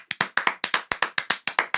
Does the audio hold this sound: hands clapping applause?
yes